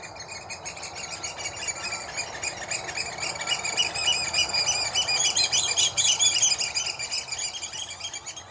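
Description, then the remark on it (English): Oystercatchers piping loudly, a dense chorus of shrill, rapid calls from many birds at once, continuous and overlapping throughout with no speech. “They nest at the top of our beaches and in winter form large flocks that fly around piping loudly.”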